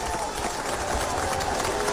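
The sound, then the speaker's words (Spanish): Steady, dense applause celebrating the 400th program of the show Frecuencia Noticias: many hands clapping at once in a continuous, even wash of sound for about two seconds, with a faint murmur of voices mixed underneath. “Llegamos a nuestro programa 400 y por eso, bueno, merecemos un aplauso por todo lo alto acá en nuestro programa.”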